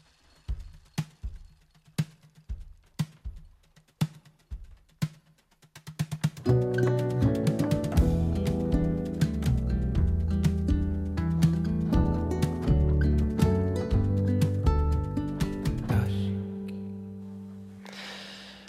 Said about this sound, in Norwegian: det er så utrolig eh, behagelig musikk, syns jeg.